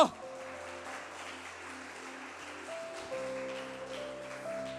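An audience applauding the Lord Jesus loudly: a dense, steady wash of many hands clapping for several seconds, with sustained keyboard-like tones holding underneath and shifting pitch partway through.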